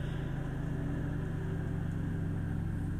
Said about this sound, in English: i am so sorry someone is mowing lawn